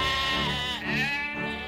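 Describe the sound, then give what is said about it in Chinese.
A flock of sheep on a wide grassland bleats steadily, a loud, wavering chorus of overlapping bleats with rich harmonic tones, continuous for the whole short stretch without any talking. “和飞舞的彩蝶，快活的望慕着羊群。”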